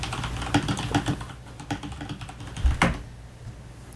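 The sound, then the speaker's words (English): Quick, uneven clatter of fingers tapping a computer keyboard, with a flurry of keystrokes at the start, a lull, then a sharper key strike near the end, as someone types a web search for an hour-long MP3 of bees. “I will Google hour long B MP3 and.”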